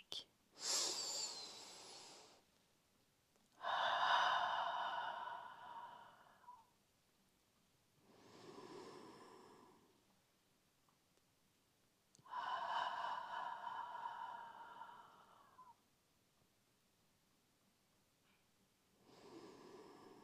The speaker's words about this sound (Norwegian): Og så tar du noen dype åndedrag.